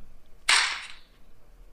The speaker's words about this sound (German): soll ich jetzt den Knaller zünden? Knall den Zünder.